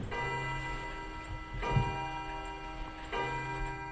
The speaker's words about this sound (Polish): I jeżeli któryś z nich przestał chodzić, wtedy czegoś zaczynało brakować w domu, w tym rytmie teoretycznie niesynchronizowanego tykania